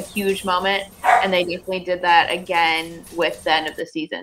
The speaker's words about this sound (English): Yes, sorry for my dog barking in the background.